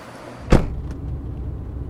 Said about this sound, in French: Et eh oui, ce sont des taxis à hydrogène. Mhm. C'est les taxis de la marque Hype. Tiens, regarde, il y en a un qui s'arrête.